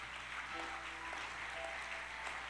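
A crowd claps steadily in praise of God, their good teacher, a dense, continuous patter of many hands filling the whole moment at an even, fairly loud level, with faint voices mixed underneath.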